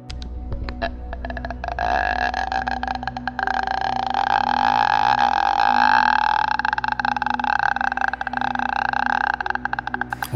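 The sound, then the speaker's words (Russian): A low, eerie croaking rattle, a ghost's appearance sound made with a comb, drags on steadily for about ten seconds, loud, with a dense throaty texture that barely changes throughout. “Э, там есть звук появления, эм, ну, призрака, так скажем.”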